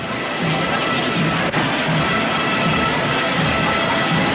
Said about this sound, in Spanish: Y arrecia un poquillo más la lluvia, ¿eh? Sí, está apretando un poquito, por desgracia.